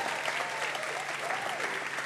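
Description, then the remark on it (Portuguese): An audience at an Igreja Batista Ponte church service applauds God, on a day celebrating almost 60 people publicly professing their faith. A steady, dense wash of clapping from many hands at once holds an even loudness throughout, with no voices standing out. “Será que você pode aplaudir esse Deus maravilhoso?”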